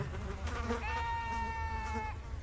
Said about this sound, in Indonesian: Lalat-lalat mendengung di mata domba-domba kecil. Lalat-lalat terbang ke hidung domba kecil.